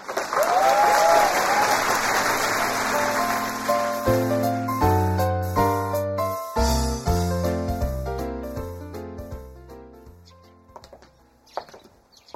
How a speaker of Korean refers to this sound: 고마움의 표시로 모두 큰 박수 한번 부탁드리겠습니다.